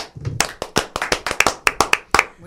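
A short burst of hand clapping: about fifteen sharp, crisp claps in a quick, slightly uneven rhythm, like a small round of applause from a few people, with no talking.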